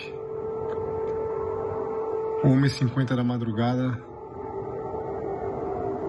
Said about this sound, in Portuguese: enviou um vídeo do momento em que a sirene da cidade de Lviv é acionada. Vamos ouvir. Sirene soa aqui em Lviv